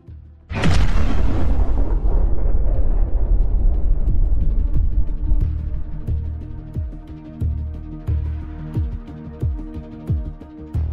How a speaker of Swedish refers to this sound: sen på morgonen den 21 november klockan 08.00 åker fartyget med full fart genom Kea-kanalen i det Egeiska havet. Och då, när klockan var 08.12 hörs plötsligt en stor explosion och hela fartyget skakar till.